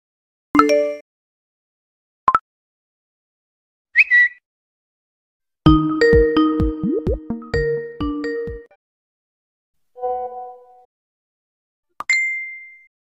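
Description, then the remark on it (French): Six short smartphone app notification sounds play one after another with pauses between them: chimes, pings and a busier melodic jingle in the middle, fairly loud and with no talking. In order they are from Instagram, Snapchat, Twitter, Skype, WhatsApp and Messenger. “Le but du jeu est simple, vous allez entendre six notifications et vous devrez trouver à quelle application elles appartiennent.”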